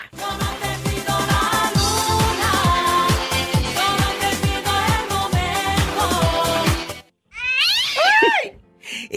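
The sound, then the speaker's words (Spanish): After several seconds of upbeat music with a thumping beat, the music cuts out and a female cat meows several times in quick succession, loud. “saluda a la gatita! ¿Cómo se llama tu gata?”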